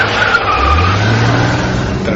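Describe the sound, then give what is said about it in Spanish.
A car skids into a handbrake spin on a road, tires squealing in a steady hiss while the engine roars and rises underneath, loud throughout the short burst. “accionar el freno de mano el coche derrapó de nuevo en redondo, iniciando así una frenética carrera en busca de la finca Pinilla”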